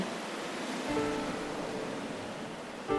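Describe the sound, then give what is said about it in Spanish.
Ocean surf roars steadily against the shore, a continuous broad wash of crashing water with no pauses, full. Faint tonal notes briefly rise above it. “Tengo los dedos torpes cuando trato de desabrochar la camisa y el mar como ruge.”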